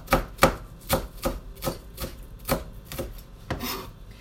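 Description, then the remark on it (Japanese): A knife finely shreds half a napa cabbage on a cutting board in a steady rhythm, about nine crisp thuds with brief crunchy rustles between strokes, moderately loud, with no voices. “白菜を刻みながら、最近の眩しい気づきを。”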